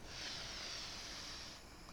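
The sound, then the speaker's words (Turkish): A slow, steady belly-breathing inhale drawn in through the nose to calm down, a soft airy rush lasting about a second and a half before easing off, quiet with no talking. “Hormonlar bir yerine otursun, bir kendimize gelelim dediğimiz ama karın nefesiyle sakin sakin hale gelebiliriz. Yani bu ne olur? Nefes alıyoruz.”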